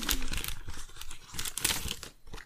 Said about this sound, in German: Guck mal, ich mache jetzt hier eine Schublade auf und ich zeig dir was. So.